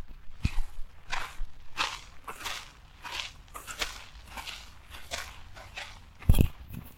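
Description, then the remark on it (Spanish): Steady footsteps of two people walking crunch along a clay path in the Viveros de Coyoacán park, roughly two steps per second with a soft gritty scrape on each, plus a sharper thud near the end. “Pues, para que conozcas qué te ha parecido hasta ahorita esta parte donde estamos transitando y aparte para que escuchen nuestros pasos.”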